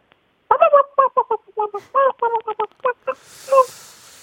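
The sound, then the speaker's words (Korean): A person imitates a feeble, sickly chicken with a string of short, wavering clucks and squawks in uneven rhythm, fairly loud, fading toward the end over faint background hiss. “병든, 예, 더 닭이 힘없는 닭소리.”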